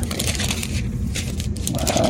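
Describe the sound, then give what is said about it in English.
Crinkly rustling of thin Bible pages stuck together being peeled apart, a steady run of soft crackles and brief papery swishes over a low, constant background rumble. “Let's try to get this loosed up.”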